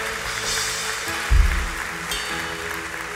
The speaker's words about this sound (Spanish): Dale un aplauso al Señor por eso, iglesia.